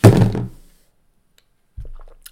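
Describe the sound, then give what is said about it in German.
A mobile phone tips over and lands with a dull, heavy thunk that quickly fades, followed after a short silence by a softer second knock. “Jetzt ist mein Handy auch umgefallen.”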